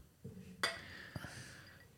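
Two glasses clink together once in a toast, with a bright ringing tone that fades over about a second. A soft knock comes just before and small handling taps follow.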